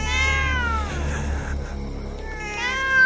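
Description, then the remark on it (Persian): Cats caterwaul in drawn-out, wavering wails, one long yowl fading into a second rising cry, loud with no talking: a cat named Nazi and its mate loudly singing their love calls, by day and especially all night. “روزها و به خصوص تمام شب را نازی و جفتش عشق خودشان را به آواز بلند میخواندند”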